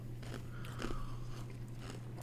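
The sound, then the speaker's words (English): Someone crunches on an ice cube, a handful of sharp, irregular bites and grinding chews over a steady low hum, with no talking. “You just eating an ice cube?”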